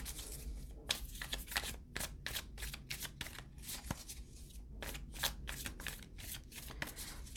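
Tarot cards being shuffled and drawn: a run of quick, crisp papery riffles and snaps, repeating in uneven bursts over a low steady hum, with no one speaking.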